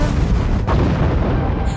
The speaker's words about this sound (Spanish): Cañonazo limpio.